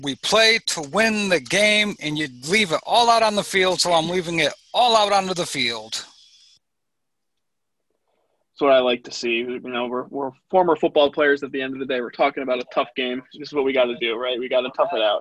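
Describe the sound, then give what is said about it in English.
The speaker's own recorded audio unexpectedly plays back loudly as an echo for several seconds, stops abruptly into a pause of silence, then a man resumes speaking. “I don't know why my audio all of a sudden started playing.”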